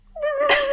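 A young dog, Sally, wearing a harness at home, gives one short, high-pitched whine, a steady nasal tone lasting under a second that turns breathy and raspy midway, fairly loud, with no talking.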